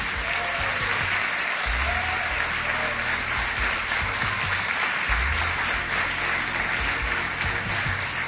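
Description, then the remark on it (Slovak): An audience claps steadily and loudly throughout, applause for a jury member being introduced, a dense wash that stays even from start to finish with no speech over it. “Ďalší potlesk venujeme ďalšej členke poroty, …, prvej výťazke Gospel Talentu z roku 2009, speváčke, skladateľke, hudobníčke a takisto aj držiteľke dvoch platinových platní.”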